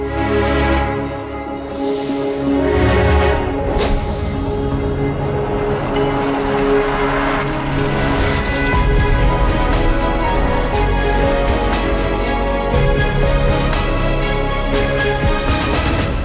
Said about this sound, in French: C'est la musique d'introduction des films quand vous allez dans un cinéma Gaumont ou Pâté.